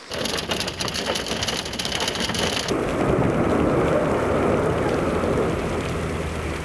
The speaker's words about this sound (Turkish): İnanılmaz bir dolu yağıyor ki zaten şu anda sesi de duyuyorsunuz işte camlara vuruyor o yağmur taneleri, dolu taneleri Üsküdar Beşiktaş Sultan Gazi hemen her noktada göz gözü görmedi.